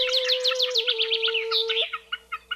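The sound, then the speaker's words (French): Several birds chirp and squawk together in a rapid, overlapping chatter over a steady hum, then the calls thin out to a few spaced chirps at the end. “Après un long voyage, Piaillant et cancanant de concert, les oiseaux déposèrent le chatoyant ruban d'écailles sur un lieu retiré.”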